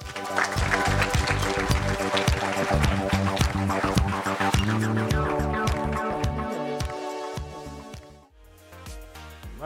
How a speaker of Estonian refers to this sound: ei ole rohkem küsimusi, aga teeme veel ühe suure aplausi